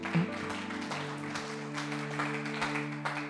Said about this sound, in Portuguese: Glória a Deus, aplaude ao Senhor, cara, aleluia.